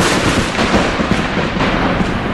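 Loud, continuous rumbling thunder fills the whole stretch, a dense, booming roar with no pauses and no voices.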